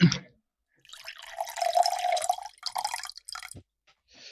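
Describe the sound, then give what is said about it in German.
Water is poured from a glass in a steady trickling stream for about two seconds, then a few splashy spurts and drips, with no one talking; the pouring simulates a toilet sound. “Das heißt, wir müssen das jetzt simulieren, oder was? Das ist so diese Urangst. Hast du ein Glas da?”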